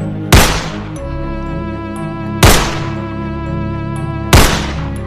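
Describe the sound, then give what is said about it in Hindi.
Three loud, sharp revolver shots ring out about two seconds apart, fired in anger at a woman after an argument, each with a short echoing tail, over a steady droning musical background with no talking. “दोनों के बीच बहस हुई और गुस्से में उसने अपनी रिवॉल्वर निकाल कर नैना पे तीन गोलियां फायर कर दी”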